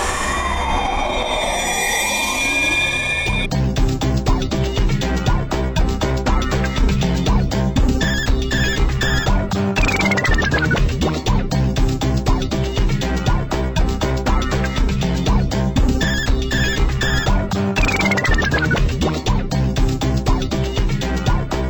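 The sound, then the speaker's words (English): Bright chiptune-style title screen music from the 2007–2008 video game Pumpkin Man, played under the title screen animation and credits. It opens with a few seconds of sweeping, siren-like tones, then settles into a loud, steady looping melody with a driving beat and quick falling arpeggios. “What you just heard was the beginning music under the title screen animation and credits for a game I created in 2007 and 2008 called Pumpkin Man.”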